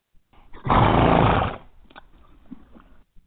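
horse snorting

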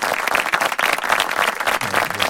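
clapping

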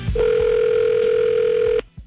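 telephone dial tone

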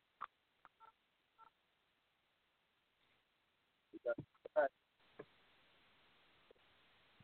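phone keypad tones

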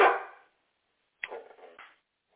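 dog barking

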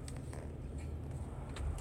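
car interior

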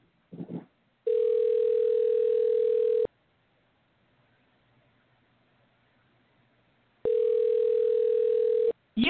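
telephone dial tone

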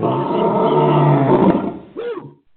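lion roaring

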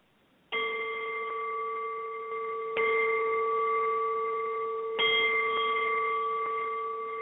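ringing meditation bells

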